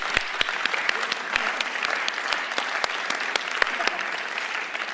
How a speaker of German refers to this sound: Also dieser Applaus war für alle, die heute hier mitarbeiten.